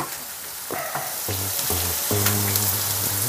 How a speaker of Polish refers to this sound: I teraz się będą smażyć